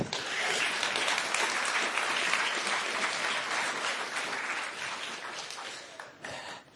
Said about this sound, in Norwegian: Ja, det fortjener jo en applaus.